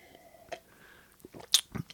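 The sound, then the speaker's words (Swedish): Wet, loud mouth smacking from someone chewing food, a handful of sticky clicks and squelches coming irregularly and growing denser toward the end, with no talking. “Vi har fått kritik ibland för att eh, när vi smaskar att det låter äckligt då.”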